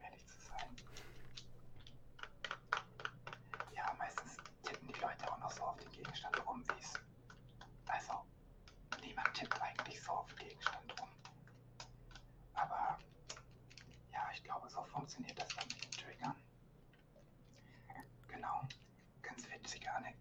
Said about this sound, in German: Und einfach, wenn ich weiß, okay, da drückt jetzt jemand auf den Controller oder ich mache das. Es ist zwar einerseits kein besonderes Geräusch, aber irgendwie, irgendwie kann ich das verstehen.